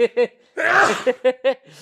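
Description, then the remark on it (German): A single loud, noisy sneeze burst lasting about half a second from a man who has turned his headset microphone down, bracketed by short, clipped voiced bursts before and after, like quick laughs or syllables, all fairly loud. “So, so also sehen wir ihn gerade nur niesen.”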